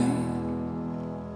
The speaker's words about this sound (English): So we're just going to listen to this song for a moment and then I'm going to come back to you.